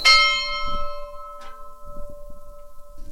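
A church bell strikes loudly, its deep metallic tone ringing and slowly fading over a low rumbling background, with another faint clang partway through.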